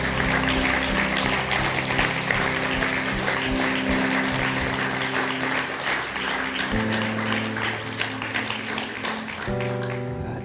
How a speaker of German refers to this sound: Und das wollen wir heute ganz praktisch mit einer Person machen, die wir jetzt gleich mal mit einem riesen Applaus auf die Bühne holen dürfen